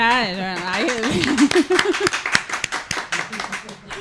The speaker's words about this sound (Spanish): Es que no tenemos el, este, ¿no? El, los aplausos que tenemos.